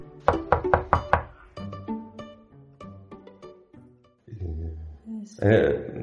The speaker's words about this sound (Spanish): justo cuando cuelgo, de repente, alguien llama a mi puerta.